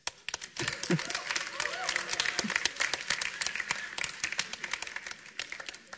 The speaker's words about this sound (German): Die Menge jubelt.